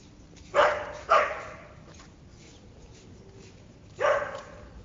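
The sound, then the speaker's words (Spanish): A dog barks at birds three times: two quick barks close together, then a single bark after a pause of a few seconds, over a quiet, faintly hissy background. “No, no es importante, es más importante ladrar a los pájaros, obviamente.”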